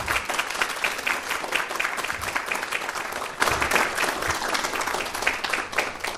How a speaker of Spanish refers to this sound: Precisamente nos acompañan alumnos de la especialidad en fiscal. Por favor. Un aplauso muy fuerte a todos ustedes.